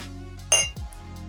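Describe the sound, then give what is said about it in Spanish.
Glasses clink together once in a toast of "salud", a bright ringing chime that fades quickly, followed by a soft knock as a glass is set down. “Alto podcast. Alto podcast. Salud.”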